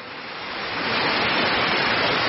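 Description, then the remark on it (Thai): Steady, dense hiss of rain falling, swelling slightly louder over a couple of seconds and then holding even, with no voices or distinct drops standing out. “ฝนกำลังตก ให้ความชุ่มเย็นกับพวกเราต่อไปให้พวกเราทุกท่านทุกองค์ทำหน้าที่ของพวกเราท่ามกลางของความชุ่มเย็นที่ฝนกำลังตก”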